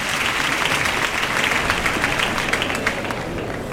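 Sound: bullring crowd ovation applause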